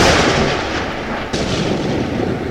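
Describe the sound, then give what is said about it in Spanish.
A loud, sustained rumble of thunder from an approaching storm rolls on for a couple of seconds, deep and broad with a brief dip partway through, with no voices over it. “Uy, ¿escucharon eso? Mejor vamos al auto que se viene la retormenta.”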